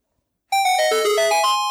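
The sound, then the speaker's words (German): A short closing video game jingle: bright, chiming electronic tones play a quick run of notes that step up and down, loud, with no talking. “wir haben nur noch den Abschlusssound”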